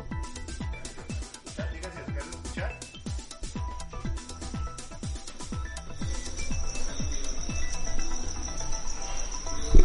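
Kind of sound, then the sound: insect, grasshopper chirping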